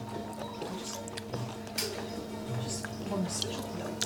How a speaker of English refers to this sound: Chewing noises intensify.